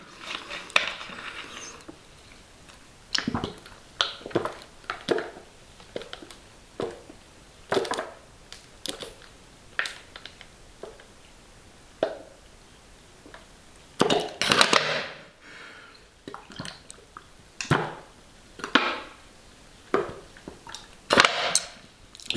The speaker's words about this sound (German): Ich werde jetzt ein Schlückchen Wasser trinken, mal so ganz cool.